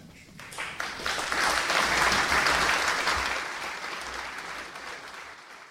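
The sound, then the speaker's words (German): Audience applause for Cardinal Walter Kasper's opening lecture on the common priesthood and priestly ministry at a symposium at a philosophical-theological college, a dense steady clatter of many hands clapping that swells over the first second, holds full for a few seconds, then gradually thins and fades. “Applaus für Walter Kardinal Kaspar und seinen Vortrag über das gemeinsame Priestertum und der priesterliche Dienst.”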